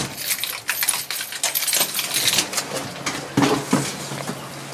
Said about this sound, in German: Jetzt tropft es hier von der Decke, ah, viel, viel, hier vielleicht gerade ein bisschen weniger.